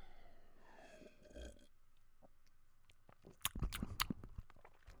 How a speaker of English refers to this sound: I mean, I, I wouldn't be able to tell this out uh, in a lineup from any of the other millions of just commercial beers that are out there, but this one's one of my favorites. I like it a lot. I'm going to take a little sip here now.